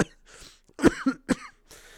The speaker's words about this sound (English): oh, sorry about my cough there. I hope this isn't return of the cough.